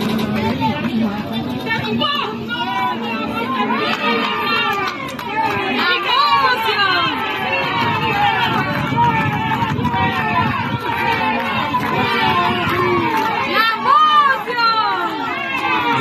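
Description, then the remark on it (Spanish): A dense crowd in La Montañita, Cabimas, shouts and chatters continuously as it welcomes candidate Pedro Duarte, many voices overlapping in a loud, steady roar with excited calls rising above it, sustained throughout. “Miren, esto es en Cabimas, en Cabimas, en la montañita, el recibimiento que le dieron a quien después aparece como ganador Pedro Duarte.”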